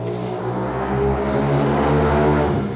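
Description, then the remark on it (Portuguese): A motorcycle engine drones steadily outside, a low buzzing hum with a rough mechanical edge that holds fairly loud and constant throughout, with no voices over it. “Barulho de moto também.”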